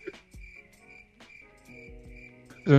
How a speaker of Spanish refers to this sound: Son un grillo de fondo.